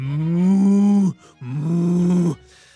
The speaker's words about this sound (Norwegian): Du slår igjen døra til låven, og du hører kyrne begynne å raute bekymra igjen.